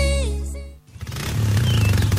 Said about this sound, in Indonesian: Motor cakep tuh. Bisa sekalian hogging. Berisik.